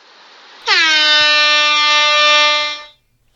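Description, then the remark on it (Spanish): A single loud air horn blast sounds alone, a steady brassy tone that starts abruptly, holds for about two seconds, then cuts off. “vale a la bocina.”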